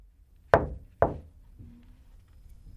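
Two firm knocks on the wooden door of a director's office, about half a second apart, fairly loud, followed by quiet with a faint low background hum and no reply.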